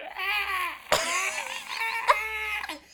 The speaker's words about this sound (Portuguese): Tu no outro dia estávamos na cama, fiz um barulho qualquer espreguiçar-me e tu disseste que eu era uma, uma mandrágora.